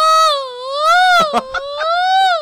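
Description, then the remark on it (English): A voice mimics off-key operatic singing, holding one high, wobbly note for a couple of seconds with a slow waver and a few brief breaks, fairly loud. “We'd all be in our apartments behind closed doors, and we would start to hear her running scales or singing arias.”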